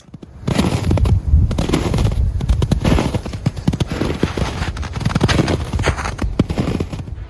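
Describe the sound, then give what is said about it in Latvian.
Steady, crunching footsteps trudge through deep snow, each heavy step a dense, gritty crunch in a continuous rhythm, fairly loud, with no voices. “Dzirdējāt brīšanu pa sniegu.”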